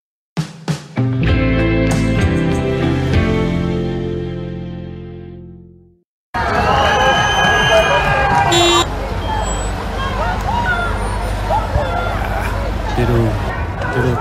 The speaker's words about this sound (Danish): Det du hører her, det er lyd fra, da Hollands politi ryddede en anti-lockdown-demo lige forud for sidste uges valg